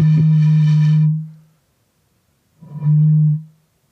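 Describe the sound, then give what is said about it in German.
Two deep, hollow hoots made by blowing across the mouth of a lemonade bottle, imitating a bittern's booming call: one long steady tone, a pause, then a shorter second one, loud. “Es ist der Vogel, der auch äh, Moorochse genannt wird, glaube ja.”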